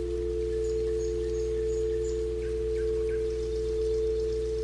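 A quartz singing bowl rings during a guided meditation, with a steady, sustained pure tone that hums evenly throughout at moderate volume, without pulsing or fading, and no voices are heard.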